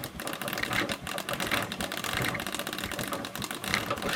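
A mutoscope viewer being cranked: a steady, rapid mechanical clatter of fast clicks and whirring that runs evenly throughout, with no one speaking.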